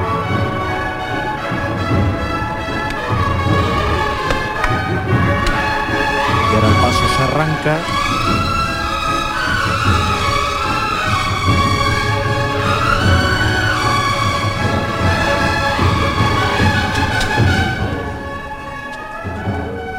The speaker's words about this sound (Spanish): Esas campanas que sentencian este momento de la bajada del cuerpo muerto, ...el Cristo de las cinco llagas.